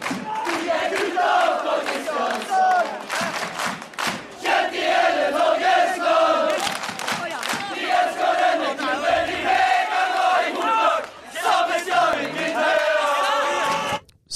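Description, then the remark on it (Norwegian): A loud, busy jingle hailing the away fans in Sogndal plays for about fourteen seconds, full of massed cheering and chanting voices over sustained tonal sounds, holding steady before cutting off abruptly at the end. “Eh, så det er bare hyll, hyll, og da har vi en jingle til det.”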